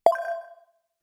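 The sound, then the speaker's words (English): A mobile phone ringtone sounds a single bright chime, a clear tonal ding that rings out and fades within about half a second, heard on its own with no talking. “oh shit, that's my phone.”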